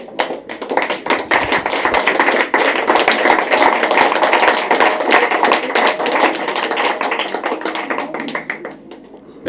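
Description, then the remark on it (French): Sustained applause from a crowd, a dense, steady patter of many hands clapping at full strength for several seconds before it cuts off abruptly. “écrivain n'a pas l'habitude des applaudissements.”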